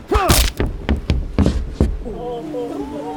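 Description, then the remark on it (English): A makeshift weapon strikes a large man's face in a quick series of about six heavy whacks and thuds, knocking him back a few steps, followed by a low, drawn-out male groan as the blows stop. “Though the makeshift weapon had knocked the large man back a few steps, he didn't seem terribly bothered by it.”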